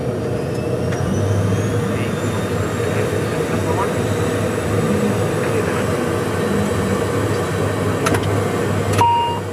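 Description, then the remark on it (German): A loud, steady engine drone with a strong low hum as the two turboprop engines of an ATR 72 start up at the airport in Sonderborg, joined near the end by a brief high-pitched tone and clicks. “Die beiden sind dann noch die Checkliste durchgegangen und haben anschließend die Triebwerke gestartet.”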